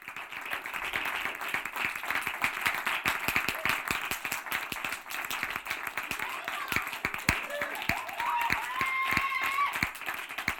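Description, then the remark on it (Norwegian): A crowd applauds steadily, with dense overlapping claps at an even, fairly loud level for about ten seconds, and faint crowd murmur blended into the clapping. “Takk, takk. Publikum holder eh, koken som aldri før.”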